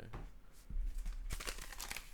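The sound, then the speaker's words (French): A paper poster being torn and crumpled: a soft thump, then a dense burst of crisp crackling and rustling that fills the second half, with no voices. “je peigne le poster de Shakira, les restants en tout cas. Puis je fais un, une espèce de bout de papier là”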